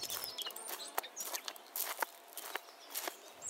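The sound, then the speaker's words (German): Steady footsteps crunch along at a brisk walking pace, fairly loud, as two people walk to the children's programme area at a festival, with faint outdoor ambience and occasional bird chirps in the background. “Ich würde jetzt aber vorschlagen, wir zwei gehen jetzt zu den jüngsten Festivalgästen ins Vogelnest, weil da ist nachmittags einmal volles Programm.”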